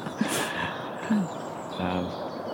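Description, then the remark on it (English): A soft dusk chorus of birds chirping and trilling in woodland over a steady hiss of outdoor ambience, with a few brief low murmurs. “There's, some, there's a nice sort of dust chorus.”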